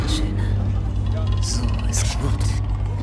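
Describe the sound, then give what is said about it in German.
A tiger purrs in a deep, continuous rumble, loud, holding steady for a few seconds with faint rustling noises above it. “Tiger schnurrt.”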